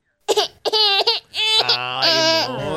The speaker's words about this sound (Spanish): Están llorando, hombre. Está silencia la ciudad.